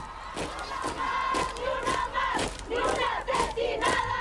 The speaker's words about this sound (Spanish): Un grupo de unas 20 mujeres fue el primero en entrar. Sus gritos rabiosos salían desde los pulmones. Eran las feministas radicales.